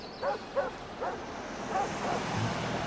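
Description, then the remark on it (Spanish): Several distant dog barks, heard through an opened window, sound in an irregular series, faint against a steady outdoor hiss like wind or far-off surf, with no one speaking. “A ver, mira, hay un perro a lo lejos.”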